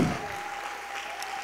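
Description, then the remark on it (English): An audience claps hands together during a sermon, answering the preacher's call to clap, in a dense, steady wash of applause, many overlapping claps at moderate volume with no voices rising above it. “Come on, somebody clap your hands right now.”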